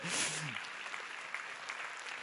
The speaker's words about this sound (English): Amen. Go ahead and applaud it. Don't kind of do it.